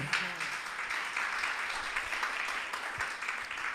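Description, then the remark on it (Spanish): An audience applauds steadily, a dense wash of many hands clapping at once that holds at an even level for about four seconds without fading. “Un aplauso a Cristo poderoso.”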